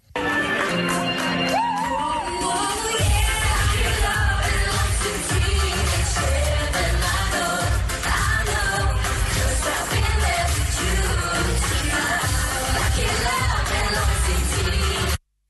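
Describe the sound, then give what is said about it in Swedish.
Loud, distorted pop music with a heavy thumping beat, filmed on a mobile phone camera at Café Opera, with crowd noise and occasional shouts mixed into the muddy, clipped sound. “du får ju fatta att det är filmat med en mobilkamera från Café Opera”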